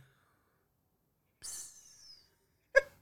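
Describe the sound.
A voice imitates a small fart with the mouth: a soft, breathy hiss trailing off for under a second, then a short, sharp pop after a brief pause. It is fairly quiet.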